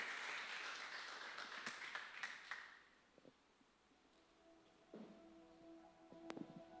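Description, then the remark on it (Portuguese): Congregation applause for God: a dense wash of clapping that fades out after a few seconds, leaving a few scattered claps over soft, sustained musical tones. “Então, aplausos para Ele, porque Ele é único na sua vida, amém?”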